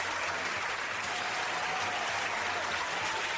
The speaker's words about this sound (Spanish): así que recibimos con un gran aplauso a Willy Van Brook.